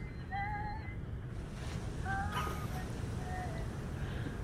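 Steady, blustery, bitter cold wind sweeping in from the south roars over open ocean at a clear, cold dawn with a constant low rumble, while thin whistling tones rise and fall briefly above it, like gusts singing through rigging.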